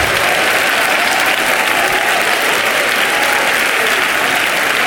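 A church audience applauds the Lord loudly and steadily, a dense wash of many hands clapping that holds at an even level throughout, with no voices standing out.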